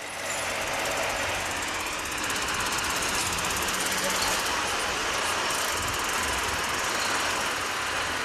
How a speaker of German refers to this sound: Hier oben über der Erde ist der Times Square mindestens genauso laut.